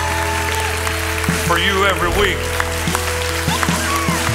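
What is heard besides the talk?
audience applause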